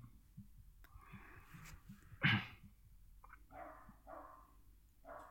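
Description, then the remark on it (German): A neighbour's dog barks in a short series: one sharp, louder bark, then several muffled barks at uneven intervals, over a low background hum. “Nein, das ist der Hund des Nachbarn.”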